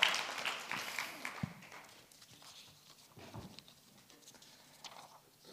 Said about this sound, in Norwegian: Oi, så bra. Gi en applaus. Kjempebra.